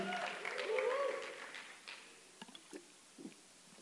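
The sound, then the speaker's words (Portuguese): A crowd claps and cheers for the Lord, the dense applause mixed with raised voices before thinning out into a few scattered, fading claps. “Aplaude o Senhor aí, vai, dá um aplauso.”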